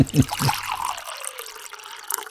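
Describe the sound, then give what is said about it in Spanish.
Water is poured for drinking in a steady trickle for a couple of seconds, preceded by a brief low clunk, with no talking over it. “Luis, tomamos un poquito de agua.”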